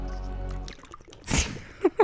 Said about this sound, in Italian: io la riesci a schienare l'acqua? Bevila tutta? No, quando tutta be- quanta. quando riesci a berne tutta di fila? Proviamo? Vai. Vai.